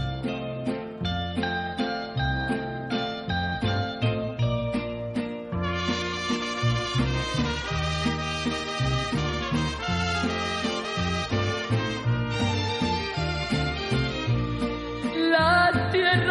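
A Mexican song's instrumental intro plays loud, with a steady pulsing bass beat under bright melodic lines that swell fuller partway through; no voices are heard.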